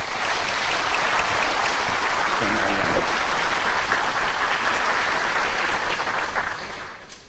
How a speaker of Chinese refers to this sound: 下边我们大家就用热烈掌声，欢迎南老师给我们做精彩演讲。